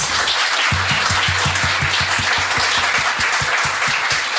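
A crowd bursts into sustained applause, many hands clapping densely and steadily, with a faint rhythmic thump underneath and no talking.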